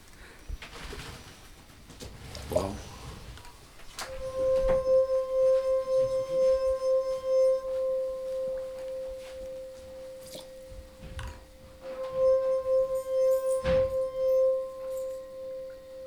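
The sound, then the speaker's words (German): Tuned drinking glasses ring out in two long, steady, pure singing tones at the same mid pitch, separated by a pause, with a few soft knocks and clinks in between and no talking. The glasses are tuned with a tuner, and water is added or removed with a pipette. “Damit du genau den Ton triffst mit den Gläsern.”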